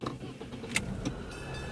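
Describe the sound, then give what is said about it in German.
Steady low rumble of a car interior while a woman rides with two Stasi men toward Dimitrovstraße, with a couple of brief clicks or rattles cutting through the hum; no one speaks. “Ein paar Minuten später sitzt sie im Auto und fährt mit den beiden Stasi-Männern in die Dimitrovstraße.”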